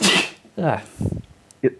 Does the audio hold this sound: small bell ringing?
no